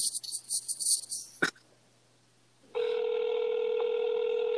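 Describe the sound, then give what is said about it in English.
A phone call goes unanswered: a buzzy, high-pitched electronic trill, a sharp click and a moment of silence, then a steady, loud telephone tone droning on until the end. “How do y'all not know how to answer the goddamn phone?”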